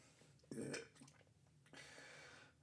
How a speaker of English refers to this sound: I probably burped at least 30 times so far. I probably add 10 more burps before this is over.